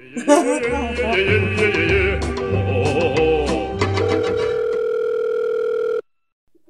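A phone call's ringing tone plays for about six seconds, a steady electronic tone with a repeating low pulse underneath, fairly loud, then cuts off abruptly into silence.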